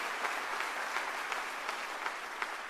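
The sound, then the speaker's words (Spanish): An audience gives a strong round of applause to the Lord, a dense wash of many hands clapping with faint periodic swells roughly every third of a second, sustained at an even level with no voices. “Si vas a darle un fuerte aplauso al Señor, que sea con fuerza, que sea con fuerza y con ganas.”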